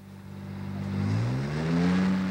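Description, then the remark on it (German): The engine of a rented Jaguar car hums with a low, steady purr that gradually rises in pitch as it revs up, a smooth harmonic drone with no voices over it. “Hörst wie der Jaguar surrt”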